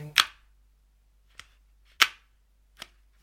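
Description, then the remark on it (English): A hole punch punches through paper four times at an uneven pace while being sampled, each press a sharp crunching snap, two louder than the others, with quiet in between and no talking. “Well, oh, we should sample the hole punching as well.”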